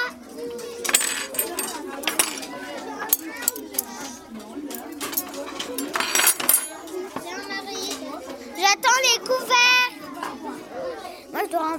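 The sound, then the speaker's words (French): Metal cutlery and plates clink and rattle in several short bursts as they are handed out while children chatter and call out loudly, as a table is being set amid lively voices. “Vous donnez les, euh, les assiettes à Marie et les couverts à moi.”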